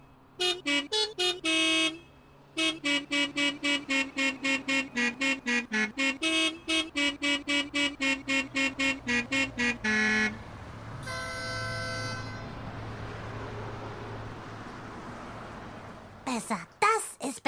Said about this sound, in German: Und zwar alle hupen wie verrückt. Aber weil die Leute dort alle sehr musikalisch sind, hupen sie Melodien und sie hupen Lieder. Und ich möchte von euch jetzt wissen, welches Lied wird hier gehupt?